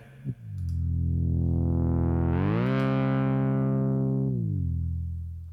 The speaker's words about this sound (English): Listen to that shit. Really trippy soundtrack, man. Just gonna go over the soundtrack with you guys.